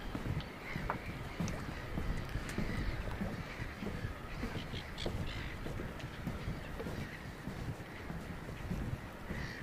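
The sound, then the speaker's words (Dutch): Steady wind and lapping water fill an open nature harbour at midnight, with six boats moored along four long jetties, and scattered brief bird calls popping up now and then over the constant outdoor rumble. “Maar de vogels zijn nog op.”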